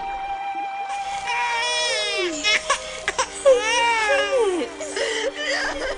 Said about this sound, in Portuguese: E viu um bebê chorando. Ela ficou com muita pena dele e disse: Este é um menino israelita.